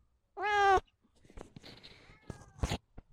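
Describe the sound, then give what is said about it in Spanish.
A pet cat named Lizzy lets out one loud, clear meow in greeting, followed by soft rustling and handling noises, a faint second mew, and a brief sharp burst near the end. “Saludos de la guardiana de la casa.”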